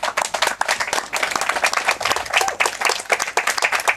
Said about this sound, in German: Einen großen Applaus.